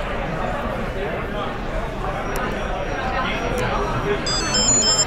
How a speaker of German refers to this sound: Jetzt, jetzt hört man ein dauerhaftes Piepen. Genau. Also nach 5 Sekunden hört es auf, wenn es dauert piept.